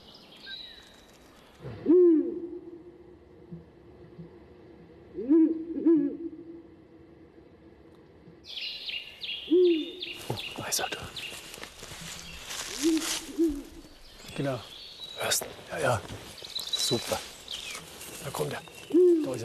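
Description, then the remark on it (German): Deep, hooting Ural owl calls played back from a sound lure device at dusk during the breeding season, in short bursts of two or three notes, first alone against quiet, then under busy rustling, clattering noise and faint background talk. “Dabei hilft eine Klangattrappe, im Prinzip Vogelstimmen aus der Konserve.”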